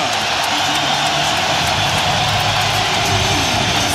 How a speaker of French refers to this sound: Et ensuite, vous allez entendre le parc OL rugir pour l'entrée des deux équipes de la France et de l'Italie qui s'avancent ici à Lyon. On vous laisse écouter l'ambiance.